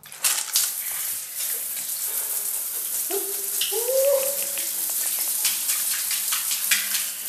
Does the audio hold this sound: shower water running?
yes